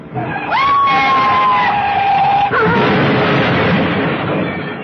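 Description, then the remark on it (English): A car crash: a loud tire screech wails for about two seconds, then cuts into a heavy crunching impact, followed by a long, noisy clatter of wreckage that fades slowly. No one speaks. “Ed Javison died in that crash so mutilated that his body could not be identified.”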